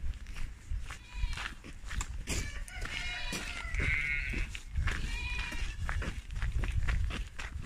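goats and sheep bleating

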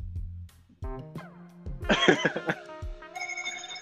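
doorbell ringing

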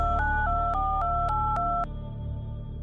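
phone call ringing

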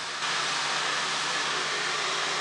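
hair dryer blowing

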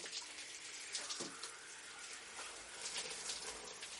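running shower water

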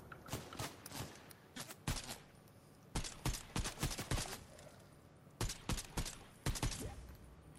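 video game gunfire

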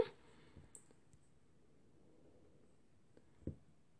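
computer mouse clicking

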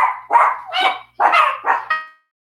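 dogs barking excitedly

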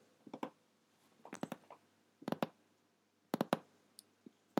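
mechanical keyboard clicking

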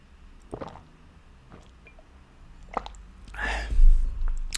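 sipping a drink

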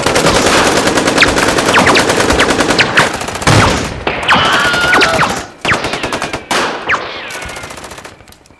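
gunfire sound effect

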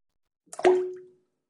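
water dripping

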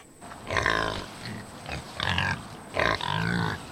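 pigs grunting

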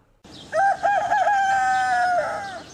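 rooster crowing

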